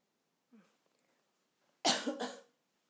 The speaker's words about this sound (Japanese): 今ね咳するとね結構あのいろいろ外で咳すると大変だったりしますけれどもちょっと喉が渇いちゃったみたいです